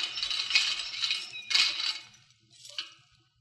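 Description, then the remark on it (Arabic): A bunch of metal keys, the keys to a palace, jingles and clinks in bright rattling bursts as they are handed over, fairly loud, shaking twice before a final lighter jangle fades out. “خلاص اتفضل ادي مفاتيح القصر”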